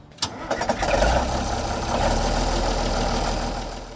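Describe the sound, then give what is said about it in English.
A 1967 Minneapolis-Moline G1000 tractor engine, the 83rd one made in 1967, cranks with a few sharp turnover bursts, catches, and settles into a loud, steady, low rumbling idle, in Kansas. “We're heading to Kansas to check out a 1967 G1000.”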